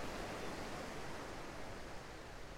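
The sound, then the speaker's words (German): Small sea waves gently lapping at a calm island shore surrounded by mountains, in warm sunshine with a light warm breeze, heard as a soft, steady watery wash with little rise and fall, fairly quiet and continuous throughout, with no voices. “Hörst dieses Plätschern der Wellen und fühlst die wärmende Sonne auf deiner Haut.”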